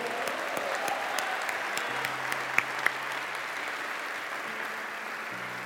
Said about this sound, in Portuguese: Um aplauso a Jesus Cristo.